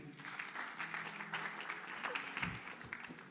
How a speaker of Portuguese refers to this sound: Salve de palmas